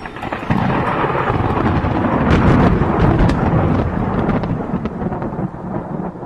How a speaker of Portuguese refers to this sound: O céu já cobria com uma vermelhidão incomparável. Parecia uma estranha tempestade.